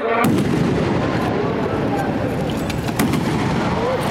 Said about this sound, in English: Two shots can be heard.